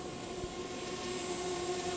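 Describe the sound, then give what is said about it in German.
A drone buzzes steadily overhead. Its high, even whine holds with a constant hum and a faint airy hiss, continuing uninterrupted with no voices. “Ist das eine Drohne? Versprüht ihr etwa Chemtrails?”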